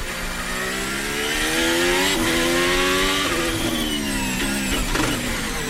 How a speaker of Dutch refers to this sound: Nou, dat is wel vrij duidelijk, hè? Bij terugschakelen, dit is gewoon een bak die slaat. Daarom dat hij nog eens in twee stond. Oh, doet toch wel pijn in je oren, ja, niet?